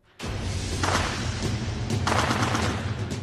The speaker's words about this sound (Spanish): Pocos meses después de la toma de posesión de Papadoc, empiezan a sonar disparos cerca del palacio presidencial.